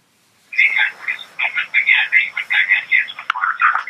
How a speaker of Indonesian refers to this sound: Ya, volume televisinya dikecilkan dulu.